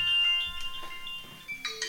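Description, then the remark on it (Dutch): An electronic telephone ringtone chimes in steady, sustained tones with a few brighter bursts near the end, moderately loud, with no one talking over it. “En toen ging er een telefoon.”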